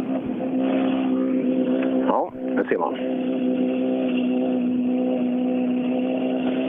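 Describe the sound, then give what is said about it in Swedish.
A rally car's engine drones steadily at a constant pitch throughout, with a brief rough burst partway through, while a man speaks a few words over it. “Monelius är ju nästa, nästa bil hit då, så den ska eh, bli jättespännande att se.”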